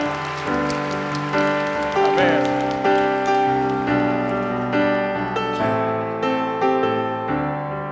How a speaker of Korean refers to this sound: 다시 한번 우리의 마음을 담아서 감사의 박수 올려드립시다.